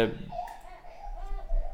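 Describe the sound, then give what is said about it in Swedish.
A young girl cries in the background, a thin, wavering wail that rises and falls continuously, fairly quiet behind a low background murmur. “Nu grinar hon i bakgrunden här.”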